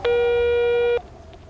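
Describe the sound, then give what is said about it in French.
A single loud, steady electronic tone as a phone call cuts off during a storm with 130 km/h winds: a busy signal held for about a second before cutting off abruptly, leaving faint background hiss. “Et là, ça coupe.”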